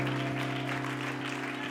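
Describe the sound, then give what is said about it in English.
An audience at worship claps their hands to the Lord together in a steady rhythm, about two claps per second, over loud sustained organ or keyboard chords that hum underneath throughout. “Why don't you clap your hands to the Lord together?”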